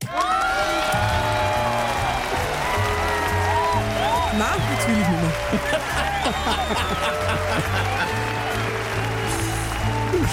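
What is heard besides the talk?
cheering and applause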